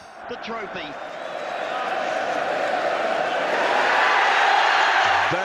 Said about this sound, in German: Da ist er, der Pokal. Und Nelson Mandela jubelt mit, mit dem ganzen Stadion. Nelson Mandela is cheering along with the whole of the stadium.